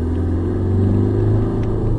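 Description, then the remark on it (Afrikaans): A 2.5 turbo diesel engine idles steadily, a loud, continuous low rumble with a throbbing, clattery drone that holds even throughout, with no voices. “Die 2.5 turbo diesel is oorgedra van die vorige model en dis nog 'n rasige eenheid.”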